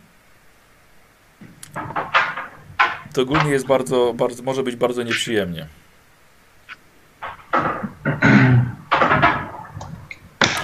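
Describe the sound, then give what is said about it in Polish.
A window blind knocks now and then against its frame in the blowing wind, light irregular taps in the background while a man talks steadily over them. “Słuchajcie, coś stuka przez cały czas i to chyba u was”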